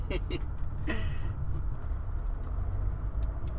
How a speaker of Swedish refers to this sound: Eh, ja, då är jag tillbaka i bilen här eh, på väg in mot Växjö igen.